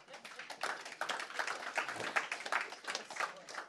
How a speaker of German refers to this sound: Ja, den Applaus haben Sie auf alle Fälle verdient.